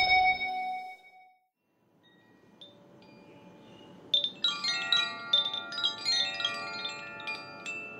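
Handmade koshi chimes with a bamboo resonance tube and eight cords silver welded to a metal plate inside the tube ring out after a brief quiet, a cluster of bright, overlapping metallic tones that shimmer and sustain, clear with no one speaking.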